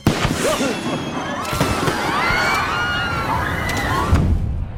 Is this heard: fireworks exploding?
yes